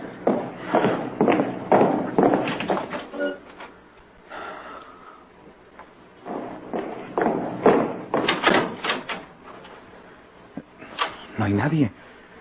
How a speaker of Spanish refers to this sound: La puerta de servicio está cerrada. Yo oí claramente una puerta que se cerró.